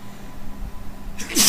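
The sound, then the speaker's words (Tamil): A single sharp, fairly loud sneeze bursts out near the end after a quiet stretch, with a breathy, hissing release and no talking. “ஸ்ரீகிருஷ்ணா தும்மல் போனச்சு சொல்லி கொடுத்தாங்க சும்மா வந்து ஐயோ அம்மான்லாம் தும்மல் போடாத வந்தவுடனே ஸ்ரீகிருஷ்ணான்ட்டு ஸ்ரீகிருஷ்ணா அப்படின்னு ஒரு தடவை சொல்லி”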